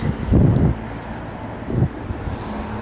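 Low, rumbling whooshes of many cars passing by in the evening, one swelling and fading early on and a shorter one near the end, over a steady background hum with no talking.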